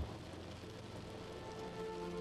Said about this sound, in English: As each drop of rain finds your window, you can see the rounded shape of each water pearl